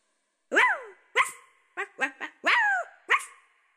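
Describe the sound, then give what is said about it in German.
A small, light-brown dachshund barks six times in quick, yappy bursts, fairly loud, with short pauses and a quick double yip in the middle. “Sie nahm den kleinen, hellbraunen Dackel auf den Arm und schwang sich auf Mondscheins Rücken.”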